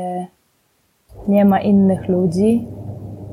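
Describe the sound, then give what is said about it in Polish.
A steady, low mechanical rumble of a washing machine runs in the background in a bathroom, moderately loud and continuous, while a woman talks over it in the foreground. “To, co słyszycie w tyle to pralka.”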